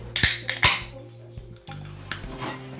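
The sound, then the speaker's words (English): A can of 3.5% beer is cracked open one-handed close to the microphone: two quick, sharp metallic snaps, each followed by a brief bright fizzing hiss, then a low steady hum with faint scattered clicks. “Uh, so we'll crack it open. This could be slightly difficult doing it one hand with the injury, but we'll do our best.”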